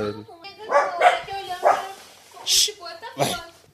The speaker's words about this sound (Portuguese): Puta, cara, tá foda, porque tem um cachorro latindo aqui, vizinho. E aí a porra dos meus cachorros estão ficando atiçados, mano. Filha da puta. Então, por isso tem que fechar a janela. Com a janela. É aqui do vizinho mesmo que tá.